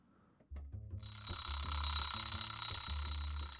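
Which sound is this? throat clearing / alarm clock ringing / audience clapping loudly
alarm clock ringing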